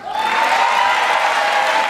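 Sustained loud applause and cheering from a large crowd giving a standing ovation, with a few whoops, a dense steady roar of clapping filling the whole two seconds before cutting off abruptly; Democratic Party celebration after a speaker vows to veto a national abortion ban.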